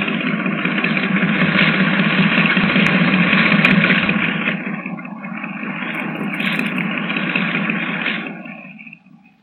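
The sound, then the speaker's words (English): A boat engine drones, running rough and uneven, sagging partway through before picking up again, then fading out at the end. No one speaks. “Under the sound of it, that engine needs attention.”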